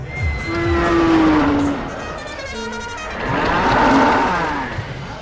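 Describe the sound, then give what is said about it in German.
A carousel sound effect standing in for the real sound of a milking carousel at a dairy cow milking parlour: mechanical rumbling with sustained whistle-like tones that swell, fade and swell again across a few seconds, fairly loud with no voices. “Ich gebe es zu, das war jetzt nicht ganz die originale Soundkulisse, aber das Karussell gibt's wirklich.”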